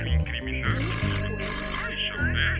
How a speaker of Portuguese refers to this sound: Mas é lógico, o telefone vermelho. Muito bem, alô?